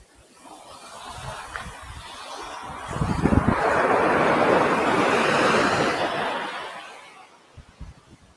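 Ocean waves wash in and break on the shore at the seaside in Hayama in the afternoon, swelling into a broad roar of surf that rises and then recedes, with some wind noise and no voices.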